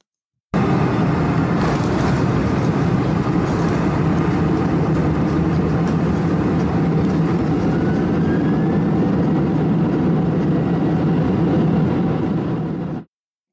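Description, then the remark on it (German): Jet engine reverse thrust heard from inside the passenger cabin after landing, the engine throwing back the air it draws in to slow down: a loud, steady, rumbling roar with a strong low end, running unbroken for about twelve seconds before cutting off. No voices are heard. “So hört sich ein Umkehrschub an, in der Kabine.”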